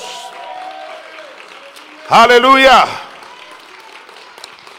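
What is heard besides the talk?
audience applause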